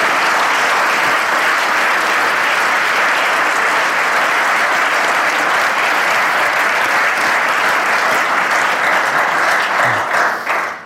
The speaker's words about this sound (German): Du hast eine starke Frau. Das finde ich auch, ja. Geben wir ihr doch mal einen Applaus.